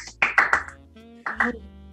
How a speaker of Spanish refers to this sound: ¡Aplausos!